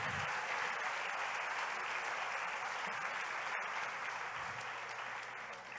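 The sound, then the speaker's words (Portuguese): An audience applauds the Lord together in a dense, steady wash of clapping that holds strong for several seconds before easing off slightly at the end, with no voices over it. “Agora você pode aplaudir o Senhor.”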